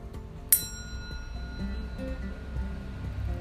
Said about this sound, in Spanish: Y cuando suena la campana, vas a dejar de moverte.